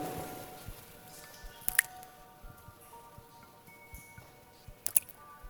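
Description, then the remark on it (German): Two distinct water drops plop into a puddle in a cave a few seconds apart, crisp against a hushed, still background with no one talking. “Wenn wir mal alle leise sind, dann hören wir auch mal, wie das tropft.”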